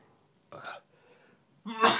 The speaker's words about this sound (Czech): Já se vlastně vůbec nedivím, že jsi nemocný. Na zdraví.